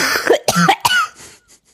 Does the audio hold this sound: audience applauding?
no